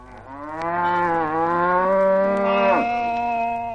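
A single long, drawn-out cow moo, loud, holding a steady low pitch before a brief shift near the end. No other sounds accompany it.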